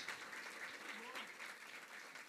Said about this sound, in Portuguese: Vamos então aqui chamar cinco voluntários, uma salva de palmas para os meus cinco voluntários.